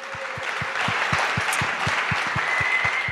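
A crowd applauds in a steady, dense wash of clapping for about three seconds, with a regular low thumping beat, roughly four pulses per second, running underneath. No one speaks.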